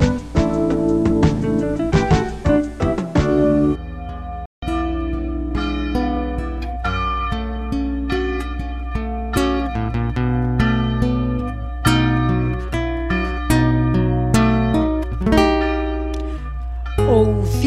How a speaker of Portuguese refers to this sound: Declamarei o poema O Sino Está a Chamar, de minha autoria, acompanhada no violão pelo professor Mário Carvalho.